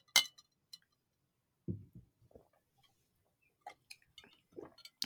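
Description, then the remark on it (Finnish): A glass of Coca-Cola and another drink clink together in a toast: a bright chime at the start, then scattered lighter taps, soft thuds and handling noise, with no one speaking. “ja vähän yhdessä Kyllä. kilistellä.”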